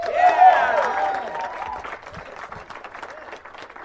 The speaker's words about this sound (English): First of all, if you have gone to a live performing arts event that was narrated, please applaud right now.